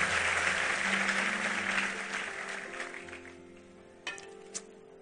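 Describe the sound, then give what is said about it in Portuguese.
A church audience applauds at the close of a sermon in a dense, steady wash of clapping that gradually thins and fades, leaving a low hum and a couple of sharp isolated claps at the end. “Vamos aplaudir, vamos ficar em pé, vamos embora para casa.”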